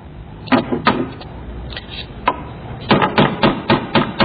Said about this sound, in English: Was it my hammer? It's that sound!